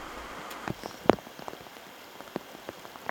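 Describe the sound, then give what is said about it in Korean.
Steady rain begins to fall on open fields where rice transplanting has just been finished, a soft continuous patter broken by scattered sharper drops, one louder splash near the middle, with no voices present. “모내기를 마친 쌍신들의 비가 내리기 시작했습니다.”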